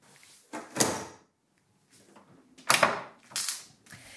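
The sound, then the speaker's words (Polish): A huge, heavy stacked drawer in a vault, used to store archival theatre performance posters, rolls open with rough scraping, sliding rumbles in several bursts separated by short pauses, with no voices. “Posiadamy także w skarbcu olbrzymie, e, spiętrzące się szuflady.”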